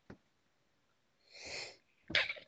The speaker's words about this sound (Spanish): Creo que con este estornudo podemos declarar. Creo que ese ha sido ya tu, finisher move